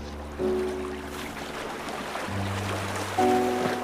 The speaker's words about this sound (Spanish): Me gusta el sonido del mar, el cual es inmenso e interminable.